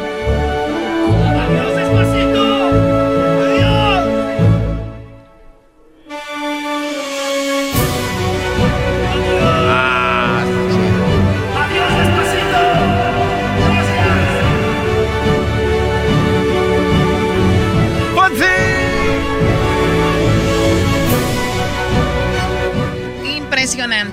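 A full symphony orchestra plays a symphonic version of a lively pop song, loud and dense, with a brief near-silent pause early on before the ensemble surges back in, recorded on a mobile phone with a slightly boxy quality.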